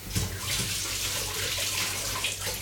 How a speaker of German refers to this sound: hat mich gerade komplett nass gespritzt.